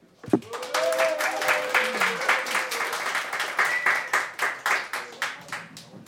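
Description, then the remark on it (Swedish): A crowd breaks into steady, dense applause, many hands clapping at once, with a few faint voices and whoops mixed in beneath the clapping, as an audience welcomes a storyteller. “En stor applåd!”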